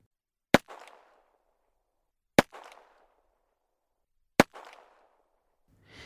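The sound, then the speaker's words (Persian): Three sharp gunshots ring out about two seconds apart in the dark of night, during an attack on a tribe's camp with Brno rifles, each loud crack trailing into a short echoing decay, with no voices, and a faint rustle at the very end. “اما درست توی همون لحظه یک دفعه توی تاریکی شب صدای شلیک های مداوم به گوششون خورد”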